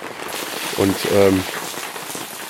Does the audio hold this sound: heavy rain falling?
yes